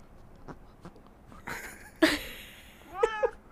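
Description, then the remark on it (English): A female cat meows loudly right next to the microphone and its fuzzy pop filter, a sharp cry followed a second later by a shorter pair of rising mews, with faint taps and rustling before them. “Here she comes. You might hear her.”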